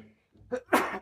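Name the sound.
sneeze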